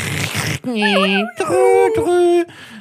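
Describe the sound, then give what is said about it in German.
A voice mimics a 56K dial-up modem connecting: a short hissing burst, then wavering, warbling electronic tones and squeals in a few rising and falling sweeps, loud for about three seconds. “Wie war 56K-Modem, das sich, das sich circa drei Stunden lang eingewählt hat mit den furchtbarsten Geräuschen.”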